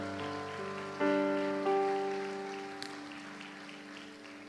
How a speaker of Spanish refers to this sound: La iglesia le da palmas fuerte al Señor.